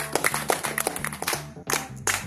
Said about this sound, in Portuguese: Uma salva de palmas, certo?